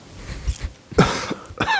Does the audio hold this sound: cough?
yes